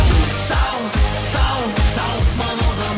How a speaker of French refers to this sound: Bah, c'est un son de fête de la bière. T'imagines ce son-là chez Ikea Oh, vraiment, vraiment horrible.